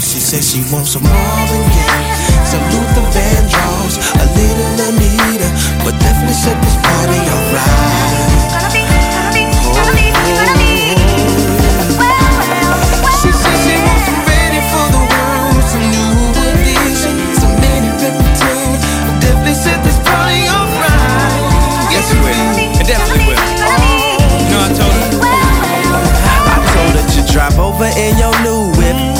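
A loud hip-hop track plays continuously, with a heavy, steady bass beat and layered instrumentation under a rapped vocal that flows throughout the whole stretch.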